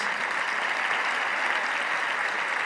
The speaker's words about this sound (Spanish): Eh, y, te quiero dar las gracias y aquí tu público te va a aplaudir aunque no lo oigas como yo lo estoy oyendo.